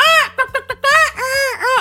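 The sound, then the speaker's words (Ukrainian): A voice imitates a seagull with loud, nasal, wailing cries: one long squawk, a quick run of short yelps, then two more drawn-out calls, over a low steady hum. “І я жодної не бачила людини, яка раптом імітувала би чайку.”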